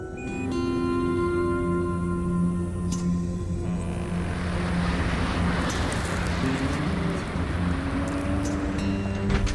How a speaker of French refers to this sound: Eh ben, c'est une sacrée tempête que vous avez là. Ah, on se colle de la poussière partout, hein.